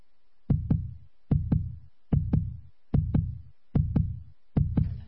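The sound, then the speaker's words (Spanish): A steady, healthy heartbeat in sinus rhythm with no murmur: six evenly spaced lub-dub pairs at a calm resting pace, clear, with quiet gaps between beats and no other sounds or voices. “¿Este es un corazón sano o un corazón taquicárdico? Es un, es un corazón sano. ¿Sí? En ritmo sinusal. Sin soplo.”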